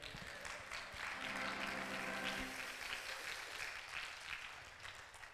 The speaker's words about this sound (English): Jesus has been speaking up to his Father on your behalf. Clap your hands right there.